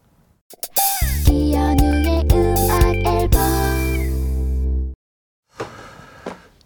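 A short burst of a pop song with a heavy bass line and steady beat plays loudly for about four seconds, then cuts off abruptly, followed by a brief muffled noise.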